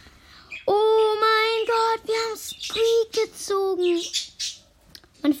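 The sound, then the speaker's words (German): Loud bird calls: a run of harsh, squawking chirps repeating in quick bursts for several seconds, with short gaps between them and no talking. “Vögel sind gerade ein bisschen laut.”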